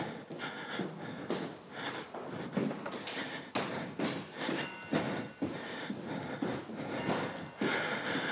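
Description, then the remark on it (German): A reporter's footsteps climb a staircase past the back courtyards of a building in a steady, unhurried rhythm, each step a dull thud or tap, with some breathing between the steps and no talking. “Und wie immer Treppen zu steigen.”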